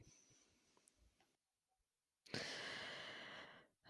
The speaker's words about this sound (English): first of all, it was uncalled for me to for me to make that big gasping sound, and I'm so sorry to our listeners. Um No, I like that. That's really how I feel when I get in a cold shower.